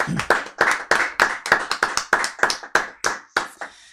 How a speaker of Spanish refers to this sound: Aguante …, el aplauso ahí a los muchachos.